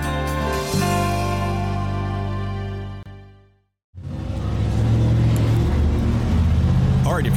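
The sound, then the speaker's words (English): A loud, deep-rumbling souped-up Chevy truck engine throbs, drops out for a moment, then roars back in with a rough, heavy growl as it runs through town. “no, that's a that's a that's a Chevy. It's Another a souped one. up Chevy running through town.”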